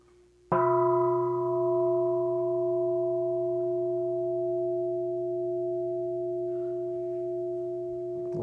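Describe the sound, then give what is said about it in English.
A single meditation bell is struck once and rings out alone, its bright overtones dying off first while a steady, mellow hum lingers and slowly fades for several seconds. “Allowing the words to fade away as the sound of the bell fades away.”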